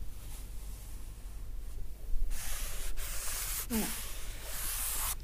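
Goatskin leather hides rubbed, a very dry hide and a hide nourished during tanning: a faint quiet stretch giving way to louder dry, hissing friction strokes that continue steadily to the end, with no voices.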